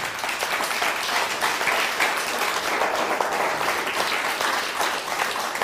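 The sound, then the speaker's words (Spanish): Sustained applause from a crowd, a dense steady wash of many hands clapping at once, holding an even loudness for several seconds with no voices standing out. “Dele un fuerte aplauso al bendito sea.”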